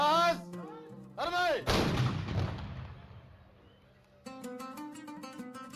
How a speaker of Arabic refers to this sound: فزائد إنهم من أوائل الناس اللي ضربت المدفع في العيدين كانوا بيستخدموا سبع قذايف كإعلان لبداية شهر رمضان